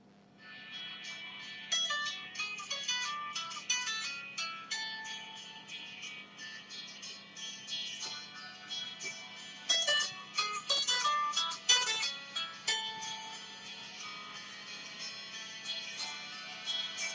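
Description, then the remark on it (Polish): A phone ringtone, an arrangement of the Nokia Tune, plays on its own as ringtones are previewed by scrolling with the arrow keys, bright tonal notes in quick bursts with brief pauses between phrases, fairly thin, with a faint steady hum underneath and no talking. “tak nacisnę strzałkę w dół, aby przenieść na kolejny dzwonek i strzałkę w górę, aby wrócić na ten, który mam ustawiony obecnie, abyście mogli usłyszeć, jak wyglądają dźwięki w tym telefonie.”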